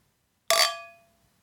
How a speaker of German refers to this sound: okay, zum Abschluss versuchen wir jetzt nochmal äh, anzustoßen. Ja, genau. Jetzt sind die Gläser nicht mehr ganz so voll.